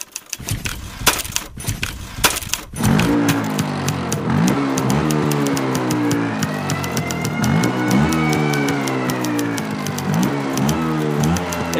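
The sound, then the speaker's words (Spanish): An old Olivetti typewriter, a poem-writing machine once kept at the Museum of Memory of Vicálvaro, clacks away in quick, uneven bursts of sharp keystrokes, which carry on over a steady, droning tonal hum that comes in after a few seconds. No one speaks. “Lo que suena es una vieja Olivetti, que en aquel entonces no era tan vieja.”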